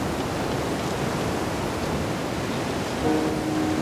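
A storm at sea heard from aboard a container ship: a dense, unbroken roar of wind and churning water fills the whole stretch, steady, with a faint low tonal hum near the end.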